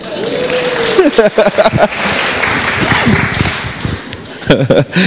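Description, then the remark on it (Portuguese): A church audience breaks into sustained applause for a member asked to stand, a dense wash of many hands clapping for several seconds, with voices calling out and talking over the clapping. “Um salve de palmas para ele.”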